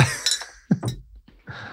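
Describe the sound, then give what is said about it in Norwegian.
Water bottles knock together in a quick toast, a few bright clinks, followed by softer knocks and handling sounds, with no talking. “Skål! Skål.”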